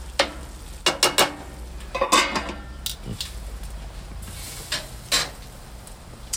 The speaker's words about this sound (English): Just stir the mushrooms and onions over here. Make sure they're doing well. They're sweating the onions, not not caramelizing.